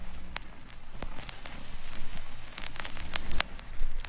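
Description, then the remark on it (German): Steady rain patters down with scattered sharper drops clicking on a hard surface, a continuous soft hiss with brief louder taps throughout and no voices. “Das Wetter wird freundlicher. Bei 10 Grad regnet es kaum.”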